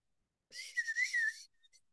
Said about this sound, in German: Mhm. Ja. Mhm die Vögel.